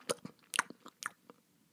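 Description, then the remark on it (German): Crisp crunching and chewing of a dragonfly devouring its prey: several quick, irregular bites in a short burst, then a few softer crunches fading away, with no voices. “Schlucken Sie es bitte, bitte herunter, dann werde ich Ihnen antworten”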